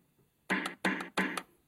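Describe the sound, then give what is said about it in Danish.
Three quick electronic snare-drum hits from a plastic toy keyboard, played with a big green button showing a picture of a small drum, evenly spaced and fairly loud, each a bright, buzzy burst with a short tail, heard alone with no talking. “Så er der et billede af en lille tromme.”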